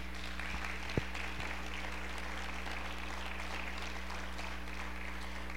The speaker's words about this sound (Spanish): ¿Podemos aplaudir al Señor o ya están muy regañados?